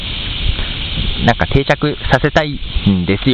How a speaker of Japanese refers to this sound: 今もこれ公園で、いますよ、そこら辺で鳩に子供が餌やってますし、えー、上じゃセミ鳴いてるし、は、鳩多いな、カラスもいるな、暑いな